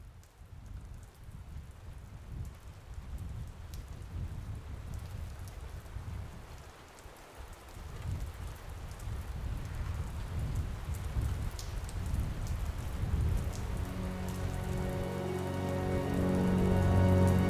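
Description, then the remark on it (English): Steady rain pours down on wet, frozen slush-filled streets in a sharp, biting wind, a dense continuous hiss with a low rumbling undertone that swells toward the end, with no voices. “Rain, dark, fast moving clouds, frozen slush filled streets, and a sharp, biting wind that slapped raindrops against already wet faces made for a terribly uncomfortable day”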